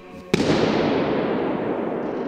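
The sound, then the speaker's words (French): A single sharp balloon pop bursts out under the dome of Hagia Sophia in Istanbul, then a long, washing reverberation rolls on and slowly fades. Recorded by Stanford University researchers with two microphones spaced like human ears. No voices. “En gros, ils ont fait éclater quatre ballons de baudruche sous la voûte, l'un après l'autre, et ont enregistré la réverbération.”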